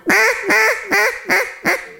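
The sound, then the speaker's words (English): A duck call sounds five loud, raspy mallard hen quacks in a steady, evenly spaced rhythm, with no talking. “It could just be a mallard hen finding their voice.”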